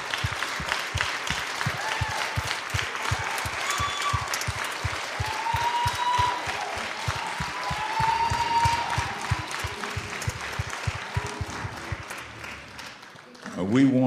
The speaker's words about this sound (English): I just want to say a special word to the new members of our family, those that were just baptized. Let's give them a hand clap, everybody.